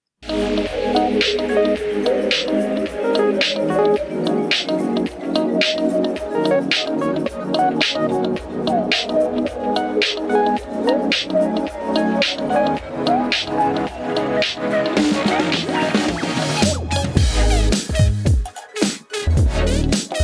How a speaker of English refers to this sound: So, with that, uh, let's go ahead and hear some fun music, and then we'll get into that summary.